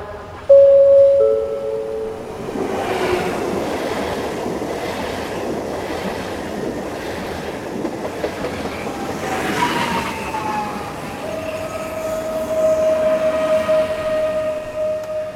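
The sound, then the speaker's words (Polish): A train rolls along a station platform with a steady rumble and rhythmic clatter, punctuated by high squealing brake or wheel tones that sustain toward the end, with no talking. “Pociąg kończy w Prosimy zachować ostrożność i nie zbliżać się do krawędzi peronu.”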